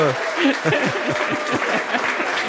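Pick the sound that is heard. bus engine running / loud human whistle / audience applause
audience applause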